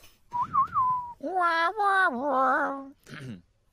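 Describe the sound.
A short whistled warble, then a longer wavering vocal call and a brief final chirp: a person behind the speaker imitating a bird, fairly loud, with no talking.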